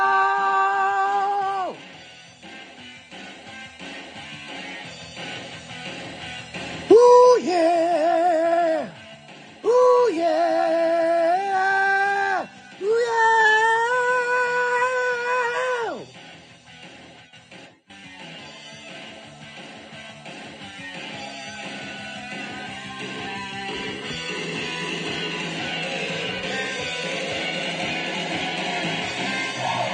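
A heavy metal song plays loudly and continuously, with sustained, soaring lead guitar notes over a dense, distorted wall of band sound.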